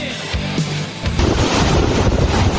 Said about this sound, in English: Monster Hurricane Ian roaring ashore as a strong Category 4. If everything stops, the storm is not over. The conditions keep going from bad to worse here. These are the strongest winds that we have felt all day.